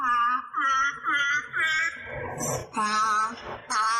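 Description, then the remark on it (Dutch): A grey seal imitates a melody played to it, singing a short tune in moaning, wail-like notes: four brief evenly spaced tones, then two longer ones shifting in pitch. Loud, with no talking. “we spelen een melodietje en als de zeehond het juist nadoet, krijgt hij een vis”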